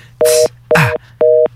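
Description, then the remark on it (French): A telephone busy signal: three short, evenly spaced two-tone beeps pulsing on and off, fairly loud, with a burst of hissy noise over the first two. “C'est le téléphone qui t'a occupé.”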